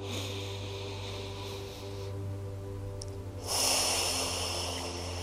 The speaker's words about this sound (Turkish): Ve şimdi 3 saniye boyunca nefesimizi alıp uzunca nefesimizi veriyoruz. Şimdi kocaman büyük bir nefes alalım.